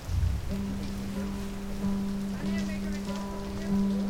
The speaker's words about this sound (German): Jetzt regnet's.